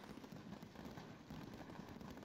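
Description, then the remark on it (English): Fireworks crackle and pop in a dense, continuous rush, like many small bursts overlapping steadily, with no pause and no voices: fireworks exploding in a warehouse fire, stored in a two-story pavilion stocked ahead of New Year celebrations, as over 400 firefighters fight the blaze at night. “Uh, to the two story pavilion in which fireworks were stored.”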